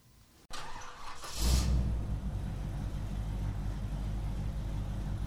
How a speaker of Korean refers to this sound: 이 소리는 기후 위기를 심화시키는 내연기관차가 매캐한 매연을 뿜으며 지나가는 소리입니다.